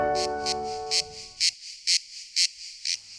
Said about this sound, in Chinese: 哦，乖乖，这就是蝉叫的声音。在夏天的时候，你应该经常听到啊。最近应该也有听到吧？一般呢，蝉叫是只有雄的蝉才会鸣叫，也就是公的蝉才会鸣叫。那雌蝉，也就是母的蝉，是不会叫的哦，因为公的蝉是为了要吸引母的蝉而鸣叫的。